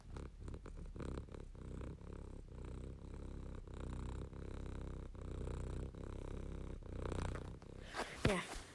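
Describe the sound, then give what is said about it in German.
A domestic cat purrs steadily, a low rumbling drone pulsing in a regular rhythm of breaths, ending with a brief rustling scratch near the end. “Jetzt ist die Folge zu Ende und ich höre noch kurz meine Katze schnurren.”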